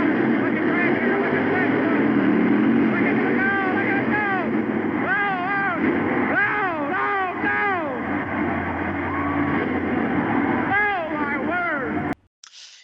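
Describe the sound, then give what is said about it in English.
A 1988 Ford monster truck engine roars loudly and steadily, then revs in a series of rising and falling surges as it throttles through a jump over seven cars, ending abruptly near the close. “Here comes Bigfoot.”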